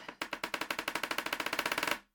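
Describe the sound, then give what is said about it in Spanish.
Rapid knocking on a water jug and a tabletop, about twenty quick, evenly spaced sharp raps in under two seconds, loud and steady, then it stops abruptly. No one talks. “ay no, espera, estoy haciendo sonar de nuevo esta huevada.”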